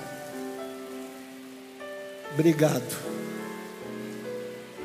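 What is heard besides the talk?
heavy rain falling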